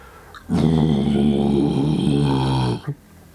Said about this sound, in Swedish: och framför er är en stor jädra varg som står framför er.